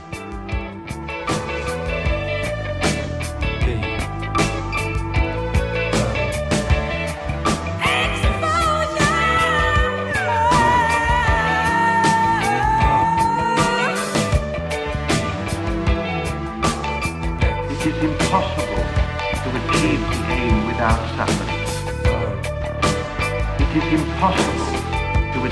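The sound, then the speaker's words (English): A loud, dense stretch of rock music plays on its own, with steady sharp percussion hits and sustained, wavering guitar tones riding over a thick, churning low end. “back after a musical break.”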